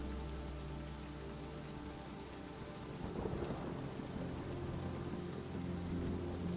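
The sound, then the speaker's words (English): Steady rain patters throughout, growing a little heavier partway through, while a low, faint rumble of thunder rolling in from the ocean sounds underneath. No voices are present. “As you approach the house, your house, the rain begins to fall slightly faster. And you can also hear the faint rumble of thunder rolling in from the ocean.”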